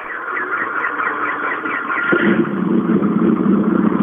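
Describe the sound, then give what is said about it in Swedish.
A white Evo rally car with start number 40, driven by Robin Friberg, roars by with a loud, continuous engine note, its pitch shifting midway as the sound swells and deepens, no voices over it. “Det är vit Evo här med startnummer 40, vilket ska vara Robin Friberg.”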